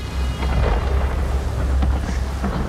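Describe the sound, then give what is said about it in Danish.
Loud, continuous rumbling of storm thunder rolls through the whole stretch, deep and heavy, with a wash of wind-like noise above it and no voices. “Did you just arrive with that storm?”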